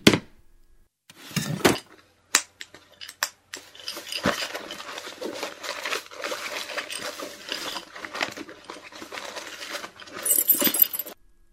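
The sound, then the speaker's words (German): Someone rummages through a handbag: scattered clicks and bumps, then a steady rustle of shuffled contents, and a brief bright jingle of keys near the end. No one speaks. “Ah ja, der Schlüssel war drin.”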